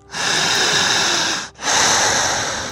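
Two long, slow, deep breaths, a drawn-out airy inhale followed by an equally long exhale, each lasting over a second with a brief pause between.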